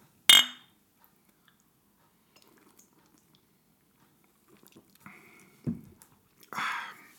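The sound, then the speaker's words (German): A single bright clink of beer glasses in a toast rings out clear at the start. Quiet follows, broken later by a few soft, muffled handling and sipping sounds. “dann hol mir wenigstens ein Bier. Ja, mach ich. Prost.”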